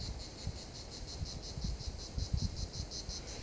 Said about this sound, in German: jetzt sitze ich hier in einem kleinen Waldstück unter Pinienbäumen, direkt neben unserem Campingplatz. Die Grillen zirpen, vielleicht hört ihr das.